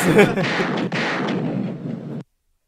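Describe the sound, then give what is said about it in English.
Loud celebratory gunshot sound effect: a sharp blast followed by a second one just under a second later, each trailing into a rough, rumbling echo that cuts off abruptly after about two seconds. “Celebration gunshot for Trey Burke.”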